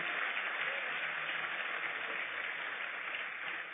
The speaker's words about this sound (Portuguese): Seus filhos são herança do Senhor. Vamos aplaudir Ele por isso.